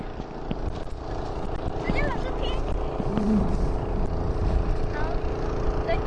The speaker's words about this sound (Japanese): 作業する人たちの船の音が聞こえてきました。